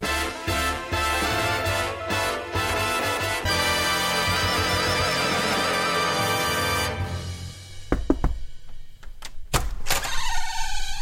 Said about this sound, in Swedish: Och så gjorde du en fejkknackning eh, inifrån. Den försiktiga knackningen är så låg att den inte fastnar på inspelningen, så jag måste fejka knackningen.